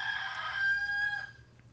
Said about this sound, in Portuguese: O galo começa a cantar